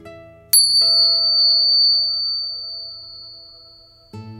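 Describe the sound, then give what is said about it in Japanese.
A bright bell chime for relaxation, played before the start of a treatment session, rings out clearly, its pure tone lingering and slowly fading, with a second softer strike shortly after and a low hum underneath before another sound cuts in at the end. “それでは、またリラックスできる鐘の音を聞いていただいてから、スタートです。”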